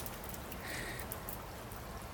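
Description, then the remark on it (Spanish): A sudden summer rain shower falling heavily on a garden, heard from a small gazebo: a steady, soft hiss with faint scattered drops pattering within the wash of sound, even throughout, no voices. “Este tipo de aguacero repentino suele ser corto aunque mirándote creo que desearía que durara para siempre.”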